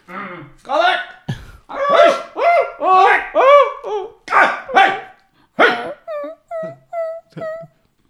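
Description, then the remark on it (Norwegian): Several dogs bark excitedly in quick, overlapping bursts, loud, then trail off into a series of shorter, evenly spaced yips. “Ah, der var det hunden. Der var de hundene.”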